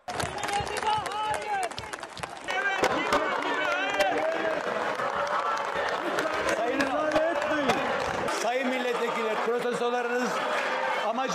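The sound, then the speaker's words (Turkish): A loud opposition protest in the Turkish parliament's General Assembly before debate on Article 29 of the social media law: many voices shouting slogans over bursts of clapping, the din dense and continuous for the whole stretch without a pause. “maddenin görüşmeleri başlamadan önce muhalefetin protestosu başladı. Alkışlarla, sloganlarla.”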